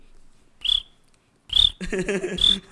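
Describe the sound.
A person imitates cricket chirps with short, high-pitched whistled squeaks, three quick bursts separated by brief pauses, with some vocal murmuring mixed into the later chirps.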